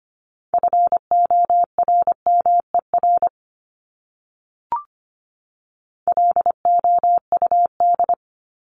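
Morse code sent at 25 words per minute, words from a list of the top 1751-2000 common words: a steady mid-pitched tone keyed in rapid dots and dashes, two bursts separated by a pause with a brief click between them.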